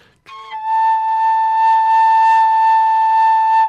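A single sustained tone blown on a koncovka overtone flute, steady and fairly loud, rich with evenly spaced overtones above the pure fundamental, with a breathy attack and slight breath noise throughout. No one speaks.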